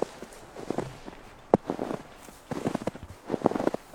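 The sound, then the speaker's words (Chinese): Footsteps crunch through deep, untouched snow in a steady, unhurried rhythm, each step a soft compressed crunch, with a sharper crack midway and no voices, during heavy March snowfall in a pine wood beside a river at the Beijing Yanqing World Horticultural Expo park, China. “这就是我的脚踩在雪地上。”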